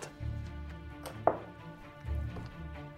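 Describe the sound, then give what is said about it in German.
An eight-sided die is tossed onto a tabletop, landing with one sharp knock and a few faint rattles as it settles, over a low, steady room rumble. “dann, würfel, äh, dann gehst du wieder auf das Auge zu und äh, fasst es an und du hörst wieder einen D8.”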